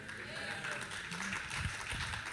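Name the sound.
audience clapping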